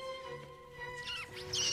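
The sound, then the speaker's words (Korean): Mice squeak in the ceiling: a quick run of high, chirpy squeals that rise and fall, getting louder toward the end, over a soft, steady tonal hum. “그때 천장에 숨어있던 쥐들의 말소리가 들렸어요.”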